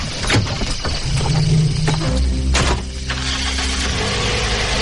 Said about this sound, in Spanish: El casero, montado en su coche, salió de la finca atravesando la oxidada puerta de la entrada perdiéndose lentamente en la oscuridad de la noche.